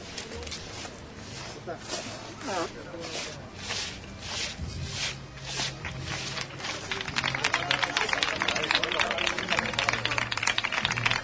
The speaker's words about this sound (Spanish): Más aplausos, agradeciendo lo que están disfrutando en estos momentos con este paseo por el santuario de nuestra Virgen Chiquita.